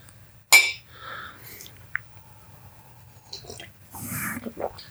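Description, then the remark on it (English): A single bright clink of glasses touching in a toast, fairly loud, with a faint ringing tail, followed by softer rustling and handling noises. “So first, cheers. Oh yes, cheers.”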